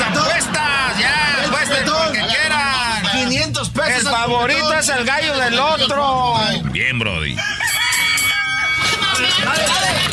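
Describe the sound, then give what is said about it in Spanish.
Roosters crow repeatedly at an illegal cockfight where bets are being placed, amid a loud, dense crowd with many voices shouting and talking over one another throughout. “You cannot be fighting roosters.”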